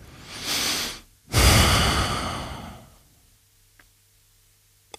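A deep breath drawn in, followed by a longer, heavier exhale that fades out, then quiet with a couple of faint ticks.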